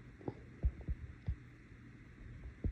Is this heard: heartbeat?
yes